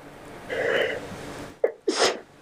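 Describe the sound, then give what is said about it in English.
A loud sneeze: a drawn-in breath, a brief sharp catch, then a forceful explosive burst that trails off. No one speaks. “…'s allergic to Denny's”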